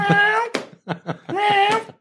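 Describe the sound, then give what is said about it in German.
A voice imitates a meowing cat noise box toy with two long, wavering meows separated by a few short clipped yowls, fairly loud with no other talk. “Wahrscheinlich ist die Batterie von der Katzenkiste leer.”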